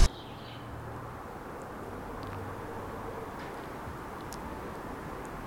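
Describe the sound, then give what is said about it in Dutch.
A steady low rumble of car traffic fills the background, broad and constant without distinct passing vehicles, with a few faint high chirps or clicks scattered over it. “Ja, we horen vooral eh, wagens op de achtergrond, denk ik.”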